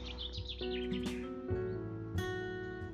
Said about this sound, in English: The male bird has a strong voice and sings from exposed perches to attract a mate. And that is what he is doing right now.